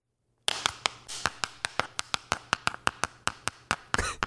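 A hundred-sided die is rolled and tumbles across a hard surface, making a steady run of sharp clacks about four per second that ends in a brief rattling flurry, landing on 88. No voices.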